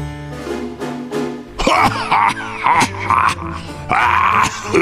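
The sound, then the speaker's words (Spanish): A harsh, violent coughing fit by a lion, caused by a cloud of dust, with loud, repeated hacking in ragged bursts, following a brief tonal musical lead-in. “Solo consiguió levantar una polvadera de tierra a su paso, que le produjo un picor enorme en los ojos y una tos que casi le destroza la garganta.”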